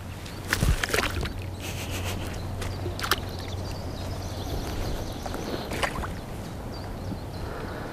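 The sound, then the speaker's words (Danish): Frogs leap into water in Tisvilde Hegn with a handful of soft, irregular plops and splashes over a steady outdoor background with a faint low hum. “Men ellers kan det være, at vi kan høre frøerne hoppe i vandet.”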